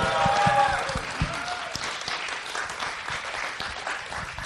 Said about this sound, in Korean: 우리 박수 한번 주세요. 와우! 와우!